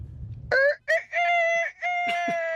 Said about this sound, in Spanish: ¿Eso qué fue? ¿Qué sería, parcero? Ese, a ver. Un gallo. un gallito, eh. Un gallito, eh.